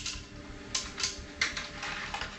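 Nails drop into a metal pressure cooker pot: several quiet, sharp metallic clinks at irregular intervals over a low, steady background rumble, with no voices.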